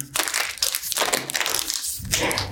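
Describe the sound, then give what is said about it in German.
A fortune cookie is cracked open, with a burst of dry crunching and crinkling that lasts a couple of seconds, including a fresh snap near the end. “Mal aufbringen, das Ding.”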